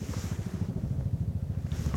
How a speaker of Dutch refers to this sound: Dan hoor ik ineens een helikopter. Ja, Defensie eh, waarschijnlijk. Ja, dus dat, eh, die oefenen hier ook in de buurt. Op de Veluwe, hè, daar gebeurt dat.